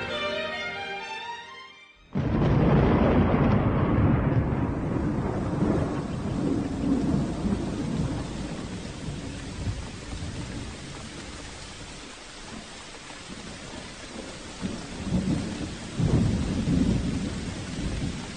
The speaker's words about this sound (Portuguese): E essa chuva não para mais. Nunca vi tanta chuva no inverno.